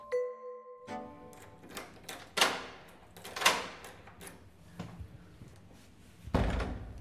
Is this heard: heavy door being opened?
yes